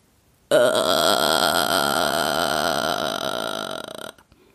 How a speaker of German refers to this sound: Die nächste Technik ist einer meiner Lieblingstechniken, der sogenannte Vocal Fry oder Schnarregister. Ich mache es euch einmal vor, dann wisst ihr, was ich meine.